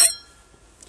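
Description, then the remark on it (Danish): Glasses of rum clink together once in a toast, a bright tap whose high ringing tone fades over about a second. No voices are heard. “Skål. Skål.”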